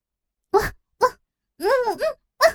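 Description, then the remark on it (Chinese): A human voice imitates a dog barking: a handful of short, moderately loud, voiced yaps, with one longer wavering bark-like howl in the middle, and quiet gaps between them. “我立时吠了两声，阻止了他，让他记得现在游戏的情况。”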